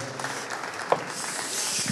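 An audience claps steadily for the whole two seconds to welcome a guest speaker, an artist, to the stage: a dense, even patter of many hands with one brief higher-pitched whoop or cheer rising out of it partway through.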